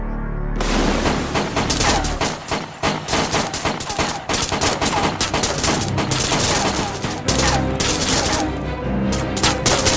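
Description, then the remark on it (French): A loud, sustained burst of gunfire in a computer-generated video, everyone shooting at a soldier in armor who smashes through a door, with dense rapid shots overlapping in a continuous volley for the whole stretch, punctuated by heavier cracks and booms. “Et là, on voit le type en enfin, l'image de synthèse, donc de cette armure, du type qui défonce la porte, de tout le monde qui lui tire dessus, et ça, et ça lui fait rien, quoi.”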